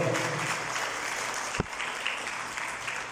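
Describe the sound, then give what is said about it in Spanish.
A crowd claps steadily throughout, a dense, even wash of many hands applauding together for the Lord, with one sharper louder clap standing out midway. “Dele el aplauso al Señor, por favor.”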